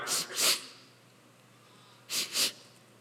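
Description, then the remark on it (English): A voice imitates a boy sniffling as he starts to cry: two pairs of quick, breathy nasal sniffs, fairly soft, separated by a pause of about a second and a half, with no talking. “sniffling. He, he's starting to cry.”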